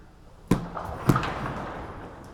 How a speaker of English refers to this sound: Good morning. Before I proceed with the gospel reading this morning, would you indulge me just for a moment? Would you please take your hand and bang on your pew two times?